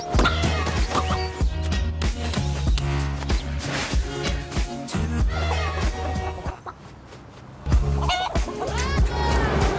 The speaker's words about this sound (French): ce sont trois petites poules blanches dont on pourra suivre les aventures dans les ident et les jingle pubs saisonniers de la chaîne. Et si vous ne les connaissez pas encore, je vous propose de faire leur connaissance grâce à ce petit clip.